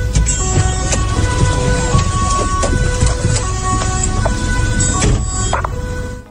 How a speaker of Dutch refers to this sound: Ja, je hoort deuren dichtklappen, want de brandweermensen eh, gaan de wagen uit om automobilisten weg te dirigeren.